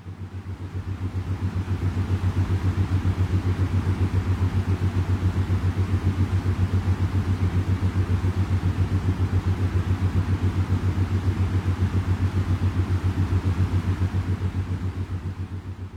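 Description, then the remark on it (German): A steady, droning low hum with a rapid pulsing throb, holding constant for about sixteen seconds and fading in and out gently. It is brainwave sleep music from an artist, meant to be heard on headphones in bed to bring on sleep. No voices. “dass man sich das dann einfach äh, anhört auf Kopfhörern, schon im Bett drin und dann bringt dich das in den Schlaf hinein.”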